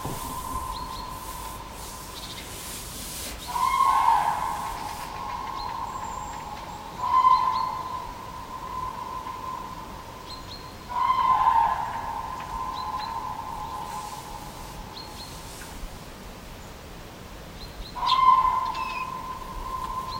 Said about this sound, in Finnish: kännykkä äänite otetaan nyt se on Kurkien aamuhuuto 17. päivä heinäkuuta tänä vuonna.